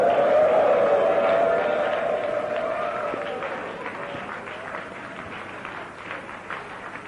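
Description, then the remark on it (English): A church audience stands and gives the Lord a shout and a clap of hands, a dense wash of hand claps under raised, wordless voices that are loudest at the start and ease off slightly over the seven seconds. “Stand to your feet and give the Lord a shout and a clap of hands.”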